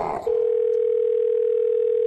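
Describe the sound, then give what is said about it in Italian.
A steady, unbroken telephone line tone sounds loud and clear through the line after a brief rustle of noise, continuing without pause for about two seconds, like the ringback of a third call being placed to an electrician. “Terza telefonata all'elettricista.”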